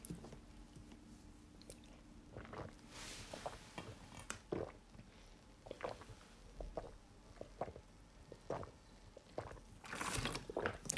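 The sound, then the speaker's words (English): Wet mouth sounds of someone drinking water: irregular sips, swallows and small liquid squishes over several seconds, with a louder burst near the end and no talking. “Sorry. Drinking water.”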